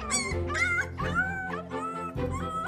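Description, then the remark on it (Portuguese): Several dogs, Feial and Caracol, along with a baby wolf found lost in the snow, whimper and yip in quick, high-pitched bursts inside an abandoned house, with short whines rising and falling over a few seconds and no talking. “Ou melhor, estavam com os cães, Feial e Caracol e com o lobo bebê que tinham encontrado perdido na neve.”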